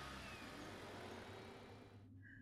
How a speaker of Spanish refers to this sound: Me subí a su coche y manejó por un rato por la carretera hasta llegar a una casa.